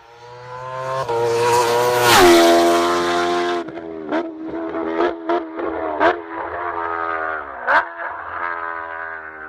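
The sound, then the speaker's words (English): A high-revving Kawasaki H2R motorcycle screams by on the Isle of Man, its loud roar peaking early, then settling into a steady, pitched engine whine broken by several quick gear-shift blips. No one speaks. “Ah, the lovely H2R flying down the Isle of Man.”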